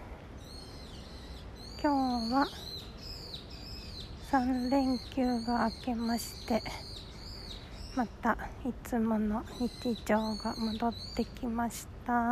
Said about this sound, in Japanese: めっちゃ鳥鳴いてんの